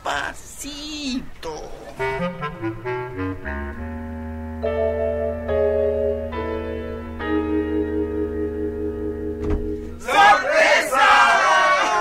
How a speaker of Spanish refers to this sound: ¿Qué es esto? ¿Qué hace tanta gente en nuestra casa?